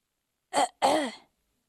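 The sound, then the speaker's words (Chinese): A storyteller grandfather clears his throat in two bursts before beginning to recite a magic spell: a short rough catch followed by a longer, gravelly rumble, with no other sound around it. “故事爷爷清了清嗓子，开始念起了魔法咒语”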